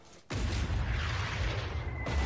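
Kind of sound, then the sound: sound effect, cannon firing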